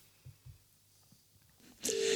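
A couple of soft low thumps, then near the end a loud, steady telephone ringing tone starts abruptly as a call is placed to a Christmas expert, and holds as the call connects. No one speaks.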